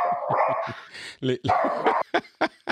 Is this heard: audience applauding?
no